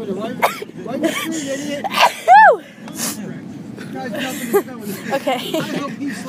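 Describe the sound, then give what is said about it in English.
A run of about five sharp sneezes in quick succession, each a sudden breathy burst, with short vocal sounds and murmurs between them. “I'm gonna sneeze.”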